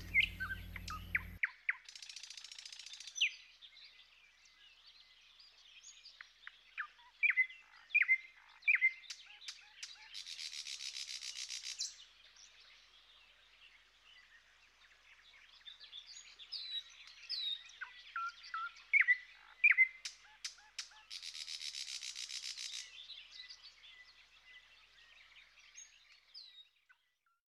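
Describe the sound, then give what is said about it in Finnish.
A thrush nightingale sings alone, a varied stream of sharp whistles, clicks and chattering phrases punctuated by two loud, dry rattling bursts, with no voices present. “Kuunnellaan satakieltä tässä vielä ennen kello 19 Yle Uutisia, eli vajaan minuutin verran.”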